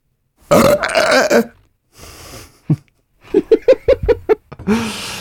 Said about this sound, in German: So, ich habe jetzt mal einen von den besagten Rülpsern rausgesucht. Okay. Ich weiß nicht, äh, hier drauf drücken. Sieben. Aufgeregter Rülpser.